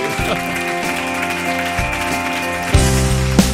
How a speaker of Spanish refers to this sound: podéis, podéis aplaudir, ¿eh? Podéis aplaudir.